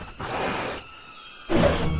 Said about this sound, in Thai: ทันใดนั้นเองก็ได้มีเสียงคำรามอันน่ากลัว และอสูรก็ได้ปรากฏกายขึ้น